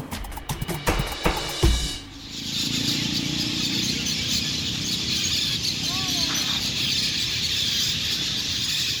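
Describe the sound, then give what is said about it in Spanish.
Thousands of piuichos (parakeets) and swallows arriving in the afternoon at the Parque de los Loros in the city of Leticia, in the Amazon rainforest, fill the air with a continuous, dense wall of shrill chattering calls, steady and loud after a few sharp knocks at the start. “Ahora nos encontramos en la espesa y exuberante selva amazónica, específicamente en el Parque de los Loros, un parque emblemático de la ciudad de Leticia, pues aquí cada tarde llegan miles de estas aves como piuichos y golondrinas”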